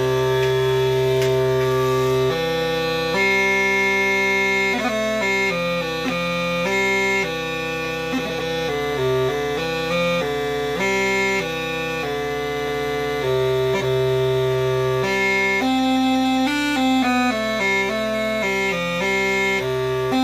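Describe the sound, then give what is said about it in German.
A tenor Hümmelchen, a small German bagpipe pitched an octave below the soprano Hümmelchen, plays a lively tune over a steady low drone, its reedy, buzzing chanter notes shifting quickly with a continuous, unbroken tone throughout. “Instrumentenvorstellung: Hümmelchen”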